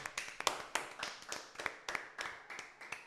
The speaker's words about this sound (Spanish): Un aplauso para este episodio, puñeta.